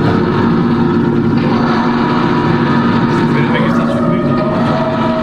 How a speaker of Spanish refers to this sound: Pon sonido motocicleta.